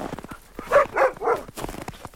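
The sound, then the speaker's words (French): Sled dogs pulling a sledge on polar ice bark three times in a quick, uneven burst, fairly loud, with faint clattering and rustling around them and no one talking. “Il décida de finir à pied, avec un seul compagnon, et un traîneau tiré par des chiens.”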